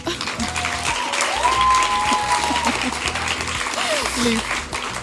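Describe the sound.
An audience claps steadily for several seconds, a dense, even patter of many hands at a fairly loud level, with a few faint voices and a brief whistle-like tone mixed in.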